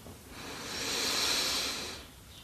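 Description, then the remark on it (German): A single slow, deep inhalation, a soft airy rush that swells to a peak and then fades, heard alone without any talking; the first deep breath in during a guided meditation. “Wir nehmen alle gemeinsam den ersten tiefen Atemzug und atmen ein.”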